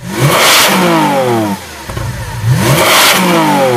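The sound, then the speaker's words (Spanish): A Lamborghini engine revs loudly in neutral in a Volkswagen Polo TV advert: two roaring throttle blips with rising pitch separated by a brief drop back toward idle, with no voices. “Se escucha además el rugir del motor de un Lamborghini acelerando con, en punto muerto, un sonido muy parecido a este.”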